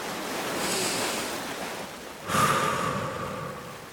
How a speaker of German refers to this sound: Orientiere dich dabei einfach an den Wellen im Hintergrund.